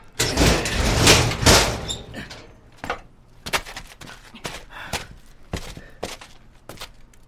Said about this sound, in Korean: 철문을 열고 안으로 들어선다.